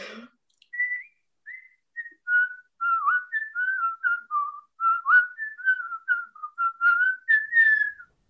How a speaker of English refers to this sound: I believe that is whistle wonderful. command. that was beautiful, really. Bravo, bravo.